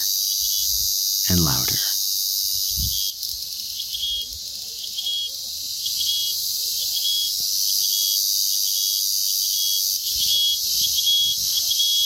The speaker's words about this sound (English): And as we are walking, we begin to hear cicadas. And they get louder and louder